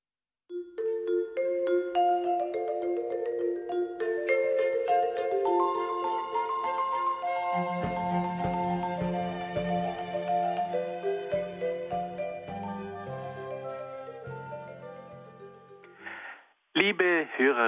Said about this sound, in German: Nun, liebe Hörerinnen und Hörer, wollen wir wieder ein wenig Musik hören.